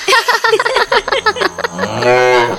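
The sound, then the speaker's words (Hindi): A buffalo lets out a loud, drawn-out low moo near the end, preceded by a quick run of short, choppy vocal sounds. “दुनिया की हर भैंस ऐसा ही भा भा करती फिर वो असली हो या कोई जादूगरनी”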